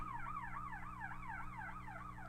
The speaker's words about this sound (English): I wonder if the mic could even pick that up. There's a really loud siren. Sorry, it's distracting me.